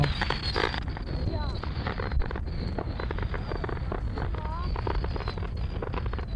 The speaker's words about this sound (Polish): Myślę, że mam jakieś nagranie z dyktafonu. Na przykład mam jakieś e, strzelające fajerwerki z końcówki lat 90.